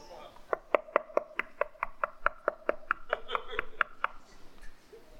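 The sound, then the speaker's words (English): A rapid, steady run of about sixteen sharp knocks on a door, fairly loud, evenly spaced over several seconds, with a faint voiced hum running beneath them. “And there were no doorbells, so he started knocking.”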